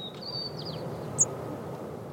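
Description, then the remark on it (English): Faint white-crowned sparrow song, a male singing on its territory in spring mating season: a thin, high whistle with a couple of quick slurred notes, then one brief sharp chirp, all over a steady outdoor rumble and hiss. “Spring is mating season for the white crowned sparrows.”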